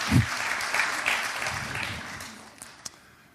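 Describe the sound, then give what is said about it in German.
A crowd applauds with dense, steady clapping that holds for a few seconds, then gradually thins and fades, a couple of last sharp claps standing out at the end. “Jawohl, Applaus.”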